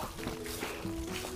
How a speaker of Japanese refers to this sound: まあ、こんな感じでちょっとね、今日雨の、小雨の中なんですいません。ちょっと雨の音がいろいろ傘に当たってみたいなのも続くと思いますが、ご容赦くださいませ。